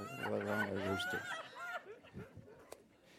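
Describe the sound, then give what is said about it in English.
A rooster crows once, loud, a drawn-out harmonic call lasting over a second, followed by quieter voices talking in the background. “I'm not even sure he crows, you know, during the night. I think it's all day long.”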